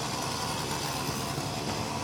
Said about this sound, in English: I think this is officially the first interview I've done next to a chainsaw.